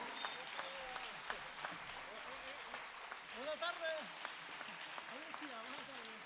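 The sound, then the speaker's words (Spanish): A crowd of people claps steadily for several seconds for a pandero player who is present as a guest, a dense patter of hands with a few voices calling out and cheering over it, swelling briefly in the middle. “Yo creo que le debemos todos un fuerte aplauso.”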